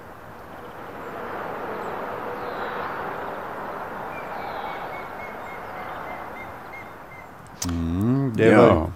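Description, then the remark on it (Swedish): Steady motorway traffic roar fills the scene while a faint grey-headed woodpecker beside the motorway gives its territorial call, a slow descending series of whistled notes; near the end a person starts talking. “Det är gråspettens revirrop. Så bredvid motorvägen så finns gråspetten.”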